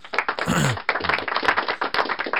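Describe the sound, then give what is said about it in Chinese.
A short burst of light applause, a handful of people clapping in quick, uneven patters, fairly steady and moderately loud for a couple of seconds with no voices over it. “这波应我觉得此时应该稍微有点小掌声啊。”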